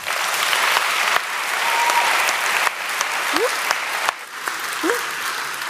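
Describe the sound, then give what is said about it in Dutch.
Sustained audience applause for an arriving guest, a dense wash of clapping from a sizable crowd that holds steady for several seconds, with a few brief whistles or vocal whoops rising above it. “graag u hartelijk applaus, al zal het nog even duren voor u Jana echt ziet”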